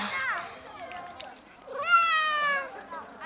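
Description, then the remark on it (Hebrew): A cat named Shon, just given cheese, meows twice, a short cry at the start and a longer, louder, drawn-out meow a couple of seconds later, with quiet background in between. “למה אתה תמיד חייב לשרוד קודם? חתול מוזר.”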